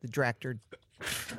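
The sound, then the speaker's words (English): A man speaks a few words, then a single sudden, breathy sneeze bursts out, loud and hissy, right after his voice stops. “Bless you.”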